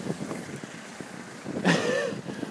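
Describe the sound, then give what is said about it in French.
Steady, moderate wind rushes and rumbles across the microphone outdoors during an evening bike commute, swelling into a stronger gust partway through, with a brief high-pitched squeal riding on top. “Le vent était modéré.”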